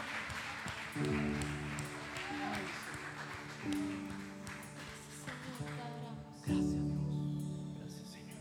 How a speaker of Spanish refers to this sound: Dale un aplauso al Señor.